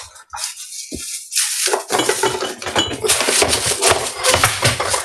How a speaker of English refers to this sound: Now, if my cooking spray, that was my cooking spray that fell, that was, there we go. So I want to just uh, use a little bit of Pam, the cooking spray Pam, on these sheets so the tortillas are not going to stick.